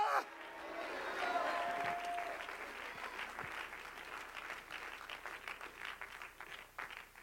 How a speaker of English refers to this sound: Somebody clap your hands and shout, Hallelujah!